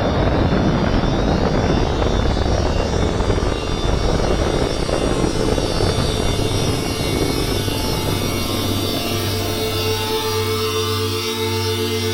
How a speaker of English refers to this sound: 1段点火リフトオフ Solid Motor Side Jet Ignition and Lift Off